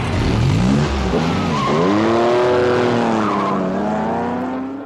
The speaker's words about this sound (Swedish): vid ett rödljus i Nice och kappkör in till Monte Carlo i en Aston Martin och en Ferrari Dino.